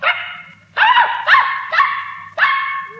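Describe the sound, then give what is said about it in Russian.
A puppy held in a small boy's arms yaps loudly, five sharp, high-pitched barks in an uneven rhythm, each one trailing off slightly, with no voices around it. “Малыш держал Бимба на руках, а тот лизал ему щеки, громко тявкал, обнюхивал уши.”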